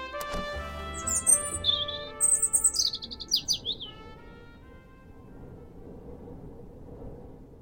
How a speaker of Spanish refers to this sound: Es una noche calurosa. Chillan las cigarras. Anuncian que por fin viene agua.